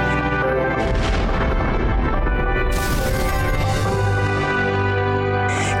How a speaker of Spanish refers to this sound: Deepwater Horizon, la plataforma petrolera semisumergible para perforación en aguas profundas del diseño más avanzado del mundo, operaba en el pozo Macondo de British Petroleum en el corazón del Golfo de México cuando ocurrió una explosión.